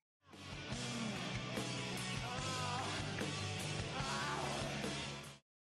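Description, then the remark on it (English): A singer lets out a raw, sustained scream over a loud, dense wash of live band music near the end of a song in a 2005 live session recording, lasting about five seconds before cutting off abruptly. “I'll insert a little scream here and you'll get it.”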